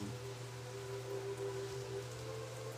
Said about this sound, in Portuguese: E a noite chega. Aqui na minha cidade agora a chuva cai.